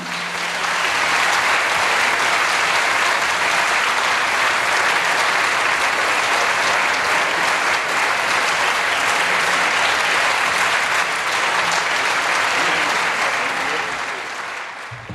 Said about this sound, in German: bitte um einen ganz herzlichen Applaus für Margarete von Schwarzkopf, Dietmar Wunder und David Lagerkranz